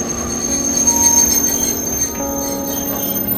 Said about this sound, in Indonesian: Kereta masuk dan remnya terasa menggores hati.